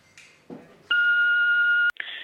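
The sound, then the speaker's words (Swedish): A single steady electronic beep lasting about a second, loud and clear, with brief soft noises just before and after it, an answering machine tone before a recorded listener phone message played on the radio. “Som ni kanske vet har vi en telefonsvarare här på Radio Total Normal dit man kan ringa och risa och rosa”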